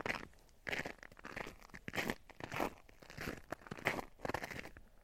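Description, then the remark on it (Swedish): Shoes crunching on ice as someone walks, a steady series of crisp crunches repeating in a walking rhythm with no talking. “Tycker det är jobbigt med det här knastrande ljudet från mina spår. Mina skor menar jag, på isen.”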